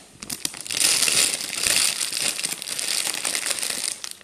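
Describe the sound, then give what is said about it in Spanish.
A chip bag is crinkled and twisted continuously for several seconds, producing dense, crackly rustling bursts, with no one speaking. “Claro, porque mientras suena así la bolsa. Claro, claro, le das la vueltica y suena de la siguiente manera.”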